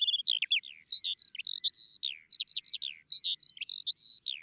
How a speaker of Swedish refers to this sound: men sånglärkan brukar alltid vara trevlig att se igen tycker jag, och höra.